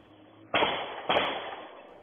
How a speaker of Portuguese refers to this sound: Esta imagem de uma câmera de segurança mostra o momento em que um policial militar percebe que era seguido por dois suspeitos. Ele pula da moto enquanto saca a arma e dispara várias vezes.